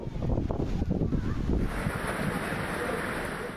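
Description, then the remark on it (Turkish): Strong storm wind buffets the microphone while waves churn and crash at a harbour in Datça, Muğla, Turkey, a steady, loud rumbling roar with bursts of gusting noise throughout. “Muğla Datça'da da felaketin nedeni fırtınaydı.”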